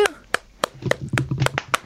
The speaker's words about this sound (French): Puis il y en a qui ont été là de 1h hier après-midi pour monter la salle, puis qui ont fini à 11h hier soir. Je hmm. trouve ça vraiment chouette. Ben, c'est sûr que dans le cas de la Fondation. on va les applaudir.